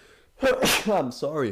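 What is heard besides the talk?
sneeze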